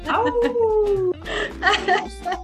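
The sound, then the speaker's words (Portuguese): A person mimics a dog, starting with a long, falling, whine-like vocal tone, then a quick string of short, rough bark-like yelps, with a laughing edge. “Vocês gostam de latir, gente? Tem que latir.”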